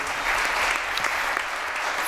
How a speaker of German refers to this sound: Genau, mit dem fetten Applaus können wir direkt weitermachen. Nochmal einmal richtig einen fetten Applaus für die drei, die sich getraut haben, heute ihr Zeugnis hier zu geben.